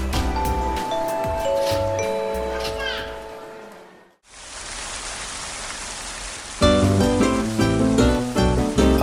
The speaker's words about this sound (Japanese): 雨の音を聞きながら